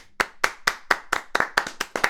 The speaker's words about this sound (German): Komm, da kann man sich mal selbst applaudieren.